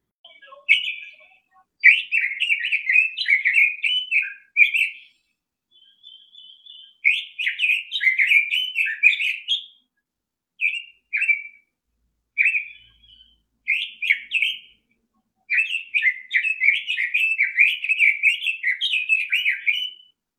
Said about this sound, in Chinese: 红嘴相思鸟的叫声非常的动听啊，你们听听它的叫声吧。